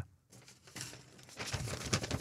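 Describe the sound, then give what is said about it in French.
A paper letter rustles and crinkles, a steady run of dry crackling after a brief pause, growing busier and louder toward the end, with no voices. “J'entends pas de bruit de papier quand tu dis eh, la lettre.”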